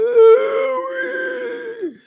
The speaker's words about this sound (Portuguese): E tu escuta novamente o grito.